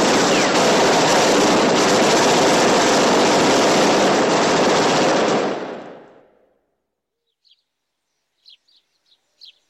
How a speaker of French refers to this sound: La carrosserie de leur Ford de luxe est criblée d'impacts de balles. C'est une véritable boucherie.